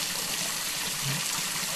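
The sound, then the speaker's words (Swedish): Water sprays out in a steady, continuous rushing hiss, constant throughout, gushing onto the floor, with no voices. “För vattnet, det slutar nog säkert spruta av sig själv.”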